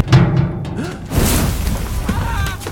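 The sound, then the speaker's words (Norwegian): A low rumble gives way to a sudden muffled boom as a kerosene heater, tampered with so it would explode, explodes in a cabin, followed by a sustained roaring whoosh of fire that carries on loud to the end. “Idet parafinovnen eksploderer, velter Gunvald Johnsen et norgesglass med parafin over bart”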